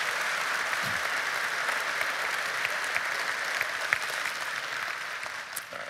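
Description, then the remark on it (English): Sustained applause from a large audience at Lake Point, expressing a commitment to pray, a dense, steady patter of many hands clapping at an even loudness for several seconds without any talking. “Would you express by your applause your commitment to pray for them?”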